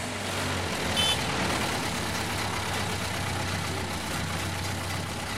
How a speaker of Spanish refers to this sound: Bajé corriendo por el sendero justo a tiempo para ver el autobús lleno de niñas de camino al colegio.